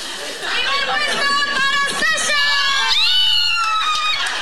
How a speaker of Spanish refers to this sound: We have a video of you cheering your son on